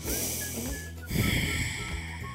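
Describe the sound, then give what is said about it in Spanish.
A slow, deliberate deep breath: an airy inhale, a brief pause, then a fuller, louder exhale that trails off. No one speaks. “Podemos hacer esto. Podemos respirar.”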